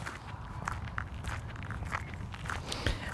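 Steady footsteps of people hiking on a fell, crunching in an irregular rhythm of soft thuds and scuffs over a low, rumbling wind-like background, with no talking.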